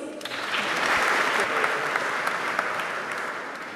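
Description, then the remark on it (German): Steady applause from an audience at an Abitur (school-leaving) ceremony, congratulating a graduate of a tutor group, a dense patter of many hands clapping at an even level for a few seconds with no voices on top. “Und auch dort einmal einen Glückwunsch und einen Applaus leider in absentu für Keno Andresen.”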